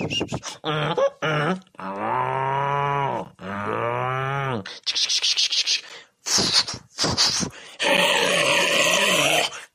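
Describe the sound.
A person imitates a dog, with quick yapping barks, two long drawn-out howling cries, more short barks, and a rough, sustained growl at the end.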